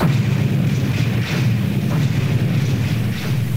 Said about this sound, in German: Und aus der Schachtel kommt ein tickendes Piepen. Ach du Heiliges! Weiter kommt er nicht. Die Schachtel explodiert.